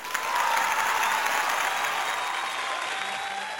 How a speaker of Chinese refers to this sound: 啊，朝阳群众辣手，扫黄反毒我有，哎，搿搭好像也应该有雷鸣般的掌声，再呱唧呱唧。